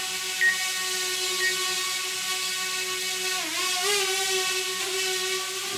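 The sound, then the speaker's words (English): A small drone's propellers buzz with a loud, steady, high-pitched whine, the pitch dipping and rising as it maneuvers indoors. No one speaks. “Whoa! Look out! That's so loud. Don't hit me with it.”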